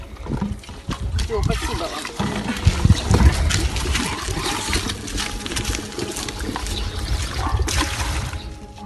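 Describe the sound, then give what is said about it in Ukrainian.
Water sloshes and splashes as people scoop it with cups and jugs from a puddle in the middle of a street in Mariupol and pour it into buckets and canisters. A steady run of irregular pours, with indistinct voices murmuring in the background. “Уявіть, просто посеред вулиці, у півмільйоннику люди з чашками та глечиками черпають воду у відра та баклажки з калюжі.”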